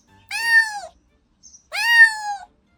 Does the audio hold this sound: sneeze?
no